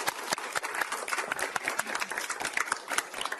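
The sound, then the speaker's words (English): A crowd applauds a PICU nurse's 25-year work milestone in a steady, dense patter of many hands clapping, bright and crackly, holding at an even moderate level for a few seconds with no voices over it. “You can clap that.”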